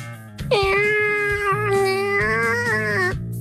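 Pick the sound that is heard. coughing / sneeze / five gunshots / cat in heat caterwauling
cat in heat caterwauling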